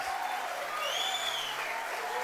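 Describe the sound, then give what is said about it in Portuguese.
A crowd applauds the people from Vila Olímpia with steady, dense clapping that holds at an even level throughout, with a few faint high-pitched cheers or whistles rising above the clapping. “Vamos aplaudir o pessoal da Vila Olímpia.”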